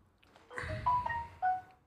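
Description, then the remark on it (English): A mobile phone notification sounds: a short melodic chime of a few bright tones, stepping along over about a second, moderately loud against quiet surroundings. “Sorry, that was my phone.”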